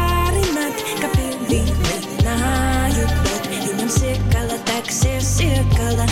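A Latvian pop debut single by a new singer plays loudly, with a punchy, steady beat, heavy bass notes and a bright melodic line riding on top, continuing throughout.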